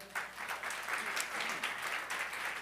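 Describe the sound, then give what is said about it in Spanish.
An audience claps loudly and steadily to receive the Word, a dense wash of many hands applauding together that holds at full strength for a few seconds, enthusiastic. “Vamos a recibir la palabra con un fuerte aplauso.”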